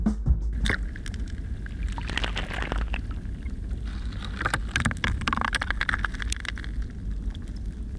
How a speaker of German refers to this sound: Ja, das ist sich bewegendes Eis oder Steine, die sich auf dem Eis bewegen, wenn sich der Gletscher im Sommer schneller bewegt als im Winter, was mit der Schmelze zusammenhängt.